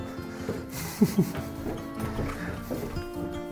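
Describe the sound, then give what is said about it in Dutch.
A dog gives a few short, gruff barks at midnight, two sharper ones close together near the start, followed by softer yaps over a steady low background hum. “Sherlock, hou de bakkes, het is middernacht. Doe iets normaal. Dus doe mijn hond.”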